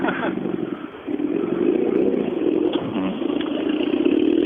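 A four-wheel-drive rally car of an SSRC class drones steadily and revs in a sustained mid-pitched roar, rising slightly in intensity toward the end, with some rattling clatter mixed in.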